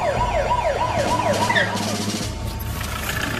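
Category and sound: vehicle, police car siren approaching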